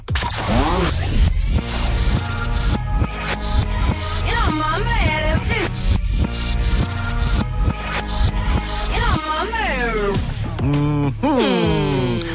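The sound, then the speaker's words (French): A song plays backwards, its reversed vocals swelling and sliding in warped, gliding pitches over a dense, steady musical bed, with sharp reversed attacks swelling in and stopping abruptly throughout. “Le reverse, c'est un son qui a été mixé à l'envers.”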